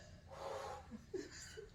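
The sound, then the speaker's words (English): A couple of slow, deep breaths, a long airy inhale followed by a shorter, breathy exhale, fairly quiet, with no talking. “I've been breathing.”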